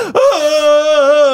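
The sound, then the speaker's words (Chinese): A voice performs an exaggerated crying wail in an acted mock Vietnamese drama scene, a man crying when his girlfriend breaks up with him: a sharp sobbing catch, then one loud, long, high-pitched wail held steady with a slight waver, no words. “我们就演一下一个啊，好，那个戏剧越南剧哦，各位哈，越南剧哈，就女生说哈就分手提分手，那男生说啊就不要找，然后就马上哭泣这样子”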